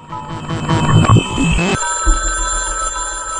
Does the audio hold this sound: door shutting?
no